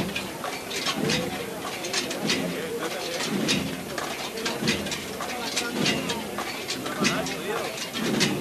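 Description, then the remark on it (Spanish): The metal poles (varales) of the Virgen de la O procession float canopy clink and jingle steadily as it sways in the Altozano, bright jangling pulses returning about once a second over a low murmur of voices. “Pues sonido de los varales, de la Virgen de la O, ya en el Altozano”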